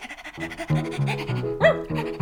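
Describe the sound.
A person imitates a panting puppy, with quick, breathy pants in a steady rhythm, some voiced into little whiny tones, fairly loud for about two seconds.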